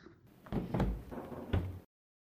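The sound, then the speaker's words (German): A refrigerator door opening, with a soft suction-like clunk followed by a couple of low rattling knocks as it swings, then silence. No voices. “Der Kühlschrank öffnet sich und Frau Müller, die Mutter von Luca, schaut hinein.”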